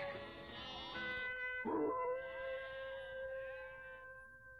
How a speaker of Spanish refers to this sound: Una noche los aullidos de los lobos se oyeron en la aldea de Tecua y a las ovejas de todos los rebaños se les pusieron las lanas de punta porque olían el peligro.